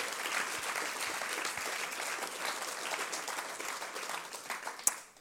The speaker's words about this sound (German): Also nochmal, großen Applaus für unsere Royal Rangers.